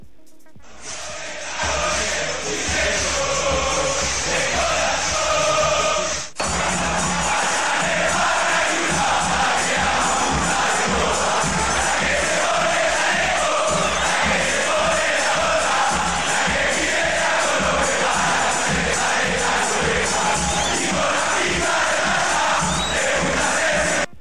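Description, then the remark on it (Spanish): A big crowd of Peñarol football fans chants and roars together in a stadium, loud and dense, with a brief break after a few seconds before the massed singing surges back and carries on steadily. “A ver, vamos con la de Peñarol.”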